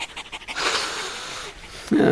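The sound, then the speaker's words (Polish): A large Rottweiler pants, quick rhythmic breaths blending into a steady, raspy huff, with a brief burst of voice at the very end. “Dorosły facet lata po osiedlu i woła Pompon! Na Rottweilera!”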